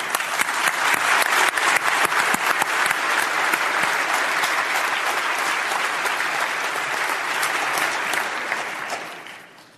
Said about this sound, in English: And a round of applause.